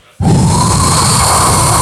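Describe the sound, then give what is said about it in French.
A loud, steady breathy whoosh from a human voice imitating the wind, starting abruptly after a brief quiet moment and holding at a constant rushing level. “Alors, je vais mimer le vent.”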